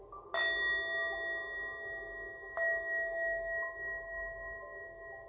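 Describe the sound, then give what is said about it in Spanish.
A meditation bell is struck twice, about two seconds apart, each strike a clear, bright tone with a long shimmering decay that rings on alone with no voices. “Por último, entraremos al estado meditativo donde permaneceremos en silencio, observando para entrar al estado de meditación, escucharás el sonido de una campana.”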